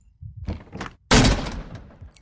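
A bedroom door is forced open: a few dull thumps against it, then one loud, sharp crash that rings out and fades with a brief rattle as the door breaks.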